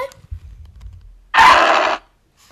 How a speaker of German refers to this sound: also, das ist der Ruf von Lucario normal.